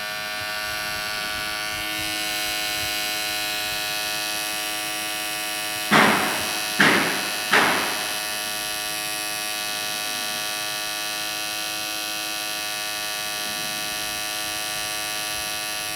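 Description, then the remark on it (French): A steady electrical drone from an electrical installation hums throughout, grainy, rich in buzzing harmonics and unchanging in level. Three sharp clicks break in around the middle, one after another, and the hum then carries on alone. “bourdon émanant d'une installation électrique”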